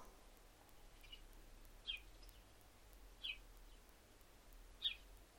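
Birds chirp outdoors in short, spaced calls, three or four bright notes standing out over a steady low background hum, with no one speaking.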